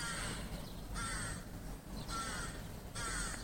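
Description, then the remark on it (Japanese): A crow caws repeatedly in four drawn-out, slightly pleading calls spaced about a second apart, heard at moderate distance over a low steady background rumble, with no talking. “すっごい甘えてるカラスの声がします。”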